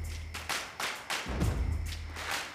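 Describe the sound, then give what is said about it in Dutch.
Scattered claps ring out over a low steady hum, arriving as a loose series of sharp bursts rather than a dense roar, like a modest crowd of gathered onlookers applauding somewhat quietly at the placing of a boulder in Paterswolde. “Ja, dat was echt applaus.”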